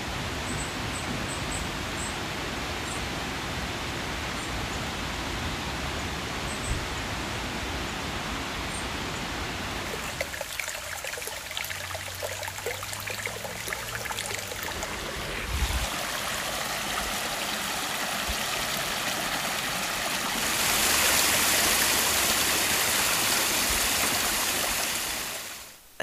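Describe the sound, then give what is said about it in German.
A mountain stream rushes steadily through the Rastenbachklamm gorge, recorded early in the morning while hiking through it: a dense, continuous roar of water that shifts in texture and swells brighter near the end, with no voices. “sind wir vor ein paar Tagen ganz früh schon durch die Klamm gewandert und haben da ein paar, ähm, ein paar Geräusche aufgefangen oder eingefangen für euch.”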